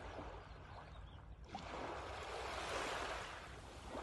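A small sea wave with lightly rippled foam rolls in and washes up onto a sandy shore and around someone's feet with a soft, broad hiss of foamy water, swelling midway and lingering before easing off. No voices are heard.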